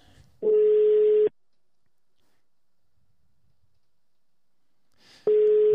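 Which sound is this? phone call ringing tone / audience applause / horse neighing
phone call ringing tone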